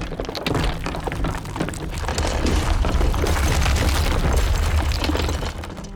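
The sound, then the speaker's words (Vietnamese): A large boulder, as big as an ox cart, rolls and tumbles from the mountain top down the mountainside at terrifying speed in a loud, continuous rumble, with deep thuds and sharp cracks layered throughout for several seconds, with no voices. “Tảng đá lăn xuống với một tốc độ kinh khiếp.”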